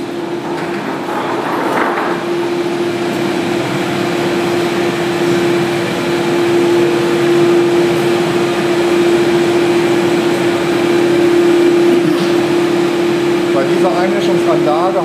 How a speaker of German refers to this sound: Wir gehen nun weiter quasi in die Einäscherungshalle wieder rein und das wird richtig laut.